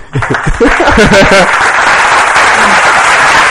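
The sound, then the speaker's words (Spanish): A recorded applause effect played at the close of a programme: steady, dense clapping that fills the whole clip at a constant loud level, with a man's voice talking over the first part. “Te pongo unos aplausos si quieres, ¿eh?”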